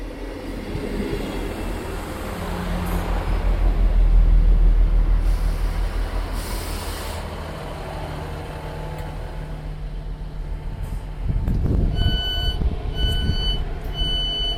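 A train rumbles along the rails, its heavy noise swelling and easing, then a louder clattering burst near the end accompanied by bright, high ringing tones. No one speaks.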